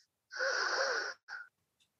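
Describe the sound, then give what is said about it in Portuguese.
A long, deep breath drawn in during a guided meditation, with a slightly wheezy, airy texture, followed by a shorter second breath. No one speaks. “Vamos respirando fundo, enviando amor incondicional também para essa egrégora do Evolua”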